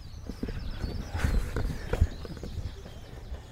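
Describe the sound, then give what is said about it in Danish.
Hooves clop steadily on a hard road as a horse-drawn wagon rolls past close by, with a low rumble of wheels beneath the uneven hoofbeats and no one speaking. “det er lige præcis den vogn. Lidt sjovt. Den er blevet lidt ældre siden, kan jeg se.”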